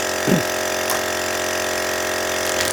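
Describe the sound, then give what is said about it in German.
A steady motorized pump hums and whirs continuously at a constant pitch, with a brief low thump near the start and faint rustling bursts, as a vacuum sealer draws air from a bag of bake-off bread rolls. “Sorry, ich vakuumiere gerade äh, Brötchen ein.”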